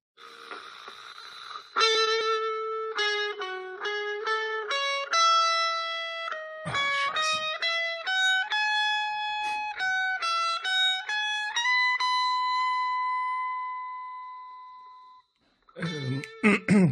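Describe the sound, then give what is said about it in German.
A shrill, tinny film-score melody, played on a phone as the first song of a music guessing quiz, comes through the small phone speaker, single bright notes stepping up and down before settling on a long held tone, followed by a brief burst of voices. “Das hat jetzt unfassbar schrill geklungen auf dem Handy.”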